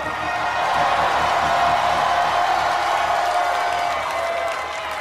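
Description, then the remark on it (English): A large audience roars and cheers in a sustained, loud wave of overlapping shouts and whoops, continuing for several seconds with some clapping mixed in. “I want to hear you roar.”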